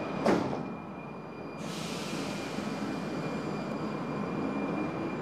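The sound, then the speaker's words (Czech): A brief sliding whoosh and thud like Prague metro train doors shutting, followed by a steady loud rumble of the metro train pulling away and running toward Nemocnice Motol station, with no voices. “Ukončete prosím výstup a nástup, dveře se zavírají.”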